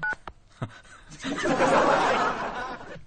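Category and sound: signal or alarm, telephone dialing tones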